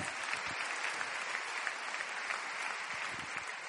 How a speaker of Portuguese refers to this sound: Dê mais um forte aplauso a Ele nessa noite.